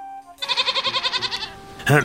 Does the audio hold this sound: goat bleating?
yes